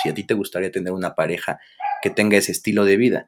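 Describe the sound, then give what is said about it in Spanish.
The speaker's own dog gives a short bark in a brief pause between phrases of steady talking, moderately loud, with a person speaking before and after it. “Si, hay mi, ese es mi perro.”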